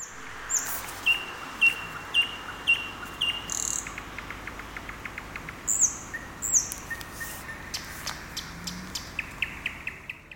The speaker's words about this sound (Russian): Но важно не это, а то, что Иван также записал соловьиное пение для нас. Вот кусочек.